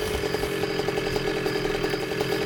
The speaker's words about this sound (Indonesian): Eh, ada suara motor, Nek.